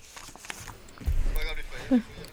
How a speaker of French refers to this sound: Euh, on entend des feuilles.